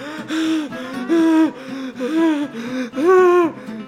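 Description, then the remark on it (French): A person imitates frantic gasping for air while panicking in a swimming pool, clinging to the lane-divider floats and trying to catch their breath: about five quick, strained voiced gasps in a row, each rising and falling in pitch, loud, with no words. “Puis là, écoute, j'essayais d'en prendre mon souffle.”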